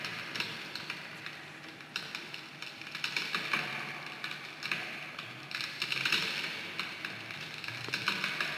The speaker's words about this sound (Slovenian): V bistvu bi ta zvok lahko bil v bistvu res tudi um, polena, ja. um, ki se že gorijo. Ja, ja pokanje.